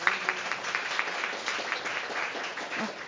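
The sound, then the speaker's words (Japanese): Audience members who want to work collaboratively alongside personal AI applaud to show their choice, a dense, steady patter of many hands clapping at moderate volume for about three seconds, with no voices over it. “じゃあそのパーソナル AI で生産性が高いけれども自分の労働意義とかがちょっと分かんなくなっちゃったりとかいや何か自分はもうちょっと何か新しい何かこう学習データの元となる個性が出せるはずだみたいな感じで協労していく協業して働きたいって人拍手お願いします。”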